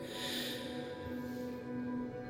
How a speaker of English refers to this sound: but Tiri snores deeply, her head resting on her great hammer.